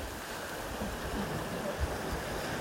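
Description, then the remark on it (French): Sea waves wash steadily over a pebbly shore, a continuous broad rush of surf with faint rattling underneath, moderately loud, with no voices. “Là, l'endroit euh, où je suis, mais l'endroit que je, vous fais écouter aussi, parce que là, vous entendez les, vagues, les galets.”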